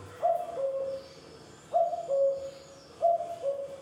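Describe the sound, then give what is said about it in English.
A male common cuckoo sings its two-note cuck-oo call three times, each a higher note falling to a lower one, evenly spaced and clear against a quiet outdoor background. “song of the male cuckoo”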